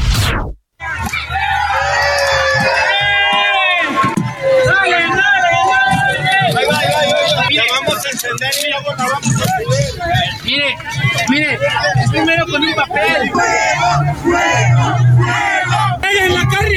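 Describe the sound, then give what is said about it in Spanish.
A large crowd shouts and chants "¡Fuera Piña!" together, many voices overlapping in a loud, continuous roar with rising cries and whoops, sustained without pause after a brief opening silence; the moment was recorded on video and shared on social media. “Lo que usted escucha, este audio que está escuchando, es parte del momento exacto, quedó captado y grabado en video, difundido en las redes sociales, causó indignación.”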